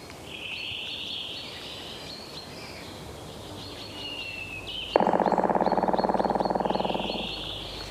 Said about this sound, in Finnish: No niin, sieltä tuleekin palokärjen ääni, joka Tämä on, on kyllä ehkä kaikkein, niin, kaikkein massiivisin rummutus.